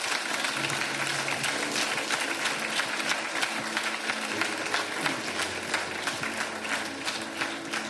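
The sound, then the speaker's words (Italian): A crowd at a religious service applauds God as praise, dense clapping filling the whole stretch at an even, loud level, with a low sustained tone humming underneath. “Facciamo un applauso al nostro Dio e al nostro Dio.”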